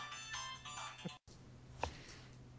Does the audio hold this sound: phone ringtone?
yes